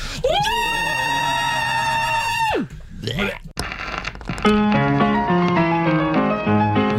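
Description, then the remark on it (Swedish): A loud, sustained high-pitched power-metal style scream, voiced to imitate a raccoon, holds for about two seconds and drops off sharply, followed by clattering noise and then bright instrumental music. “då avslutar vi varje avsnitt med ett riktigt jävla tvättbjörns power metal-skrik.”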